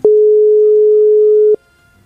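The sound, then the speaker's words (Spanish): A telephone call tone while calling Lina's phone, which has been dialed 47 times: one steady, loud, mid-pitched beep held for about a second and a half, then silence. No one speaks. “Vea, vea, este es el teléfono de Lina.”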